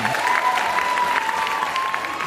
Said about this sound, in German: Großen Applaus für die Podcast-Szene. Uh! Hervorragend.